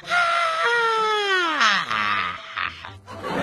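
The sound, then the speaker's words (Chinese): A voice imitates a car owner's loud, drawn-out scream when a curious bear opened the car door: a high, strained cry that slides downward in pitch, then wavers and breaks for a few seconds without pause. “当熊打开门之后呢，车主忍不住发生了大声的尖叫，啊！”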